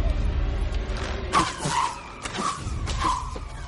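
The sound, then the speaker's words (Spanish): Several whistling arrows are shot upward one after another, each giving a short, shrill whistle that rises and fades, about four in quick succession over a steady low rumble. “William coge flechas silbadoras y dispara hacia arriba.”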